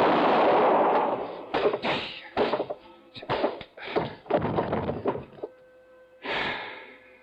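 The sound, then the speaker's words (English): A loud gunshot booms at a cabin and rings out briefly, followed by a run of short, harsh bursts of noise and one more burst near the end. No one speaks. “I knew the sound of the gunshot would bring the others back to the cabin.”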